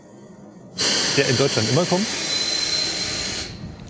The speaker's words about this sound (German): So, man hört im Hintergrund die ganze Zeit die Bremsprobe von unserem ICE.